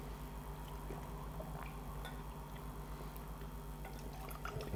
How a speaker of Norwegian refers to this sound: Jeg tror jeg må rett og slett eh, droppe inn litt vann med en gang.